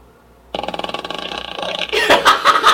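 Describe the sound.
A buzzy, rattling fart sound, probably imitated by a voice, sputters steadily for over a second before loud laughter and noisy breaths take over.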